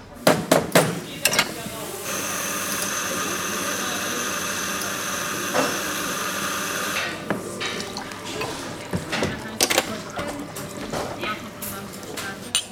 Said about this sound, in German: Hier wird schon mit Kaffee angestoßen, das ist doch hervorragend.